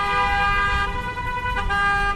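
Car horns blare in a long, sustained honk that continues without a break, with a second horn tone overlapping near the end. Steady street traffic rumbles underneath. No one speaks. Drivers on the street are honking to show they are listening to the radio station Atlântida.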